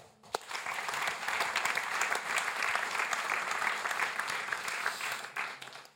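A crowd applauds steadily, a dense patter of many hands clapping that holds at an even, fairly loud level for several seconds without any talking over it.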